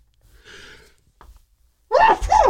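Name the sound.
a sneeze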